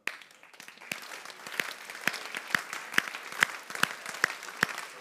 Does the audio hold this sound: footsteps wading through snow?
no